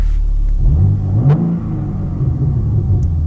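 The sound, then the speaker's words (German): A BMW M3 estate car engine in Sport Plus mode revs up loudly, its deep rumble climbing in pitch before settling into a steady, throaty idle with slight burbling as the throttle is released, no voices present. “dann habe ich den vollen Sound und er brabbelt auch, wenn ich vom Gas runtergehe.”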